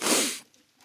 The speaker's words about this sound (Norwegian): Ah, der prøvde jeg visst å hoste opp en lunge. Beklager det.